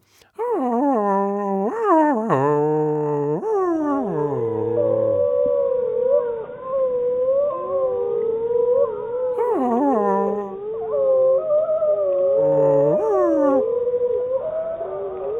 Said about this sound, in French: Et un autre loup, euh, le même loup qui ferait euh, l'effet beau geste, ça serait beaucoup moins plat, ça ferait quelque chose comme ça.